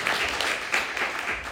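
Steady audience applause, a dense wash of many hands clapping at an even level throughout, with no voices standing out above it.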